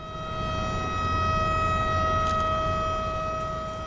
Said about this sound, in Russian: В 13.55 громко звучит сирена, предупреждающая людей о том, что через несколько минут начнется разводка.